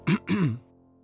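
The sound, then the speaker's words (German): A nervous man at an audition clears his throat twice in quick succession, fairly loud; the second rasping, voiced rumble lasts a bit longer before it trails off into quiet. “Wie immer war er nervös und wie immer fing er an, sich zu räuspern, aber nur zweimal.”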